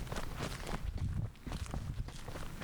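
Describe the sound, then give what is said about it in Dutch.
Footsteps walking along a street through the village centre of Wijk aan Zee toward the beach access, at a steady, even pace, fairly loud, with a faint outdoor ambience behind them and no voices. “Want we lopen nu naar uh, De, en naar het strandopgang, toch?”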